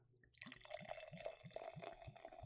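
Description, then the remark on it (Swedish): Lime-flavored Jaritos Mexican soda, made in Mexico, being poured into a glass, with a steady run of bubbling glugs about three times a second over a bright fizzing hiss, rising slightly in pitch as it fills. No one speaks. “Så lite mexikansk läsk här som jag häller upp i mitt fina glas här.”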